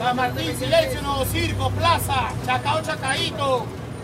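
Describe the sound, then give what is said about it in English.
Bus fare collectors hanging out of bus doors call out stops repeatedly over a steady low engine rumble and street traffic, with several people talking at once in a busy roadside scene. “To catch a bus, you have to go to a bus stop and listen out for the bus collectors. You see them hanging out the door, collecting fares, calling out stops.”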